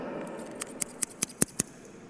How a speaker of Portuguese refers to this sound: Tá? Cortar. A utilidade da tesoura? Cortar